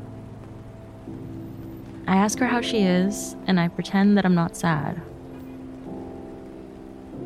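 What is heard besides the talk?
rain falling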